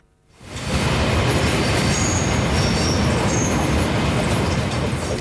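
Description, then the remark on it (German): A train rolls past on railway tracks beside Langstrasse in Zurich's Kreis 4, a loud, steady rumble rising quickly after a brief quiet start, with faint high wheel squeals riding over the continuous roar. “Gerade neben der Langstrasse und hinter den Gleis.”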